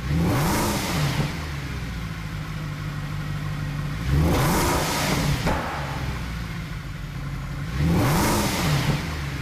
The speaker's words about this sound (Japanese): 続いてはドイツの V8 サウンド2013年式メルセデス・ベンツ SLS AMG ロードスター